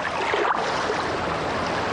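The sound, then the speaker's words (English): A small rubber boat on the undulating swell of the open sea, rowed slowly toward the shore against the outgoing tide, with a steady wash of water and waves lapping around it, continuous and fairly loud with no voices. “A short while later, a small rubber boat was bobbing up and down on the undulating swell, heading its way slowly towards the shore.”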